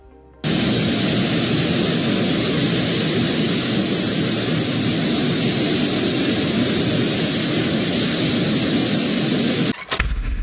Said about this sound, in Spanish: ya para irnos, el equipo de ah. investigaciones especiales de Momento Financiero captó el verdadero primer aterrizaje en la central avionera de Santa ah. Fantasía. Lo demás, lo demás son mentiras. Este es el primer aterrizaje en Santa Fantasía.